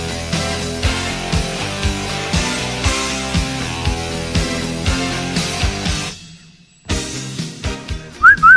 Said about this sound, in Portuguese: Cadê o assobio da galera? Cadê o assobio da galera?